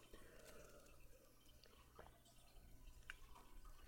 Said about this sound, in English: So let's all take a sip together. Grab your glasses, grab your water bottles. We all take one together.